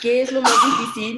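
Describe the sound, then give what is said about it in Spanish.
A single quick sneeze bursts out in the middle of a spoken question, sharp, cutting across the person talking before the speech carries on. “Ah, salud a quien esté ahí.”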